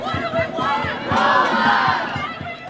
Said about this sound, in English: That's the sound of protests earlier this year when dozens of UC Santa Cruz graduate students went on strike over low wages and the high cost of living expenses.